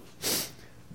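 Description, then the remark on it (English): A single quick sneeze bursts out, a sharp, breathy blast lasting under half a second, then fades to quiet with no talking. “Oh, bless you.”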